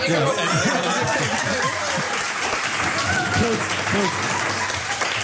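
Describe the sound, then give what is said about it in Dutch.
An audience claps steadily for several seconds, a dense, even wash of applause, with voices talking and a few chuckles mixed in beneath it, closing a panel discussion with guests at a table. “Met dit applaus moeten we afsluiten.”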